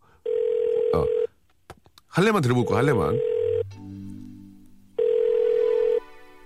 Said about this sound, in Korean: 자, 전화가 가고 있습니다.